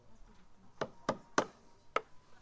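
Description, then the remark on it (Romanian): Light wooden mallets tap window frames being prepared for assembly four times at an uneven pace, each a short, dry knock with a crisp attack, over a quiet background. “Dar ce ciocane originale aveți. Și la propriu și la figurat. Da, sunt super ușoare astea de lemn.”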